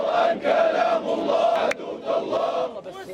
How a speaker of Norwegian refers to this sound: Død over USA, død over Israel, forbannelse over jøder og seier til islam, roper demonstranter i Sanaa i Jemen.